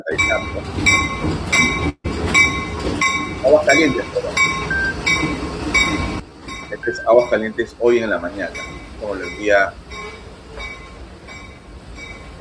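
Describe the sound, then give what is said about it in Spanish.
A train in Cusco, Peru, filmed on a mobile phone, rumbles along the tracks with steady, rhythmic metallic clinking and clatter, loud at first, then continuing more faintly beneath a person talking. “En, Cusco, esta es la imagen del tren”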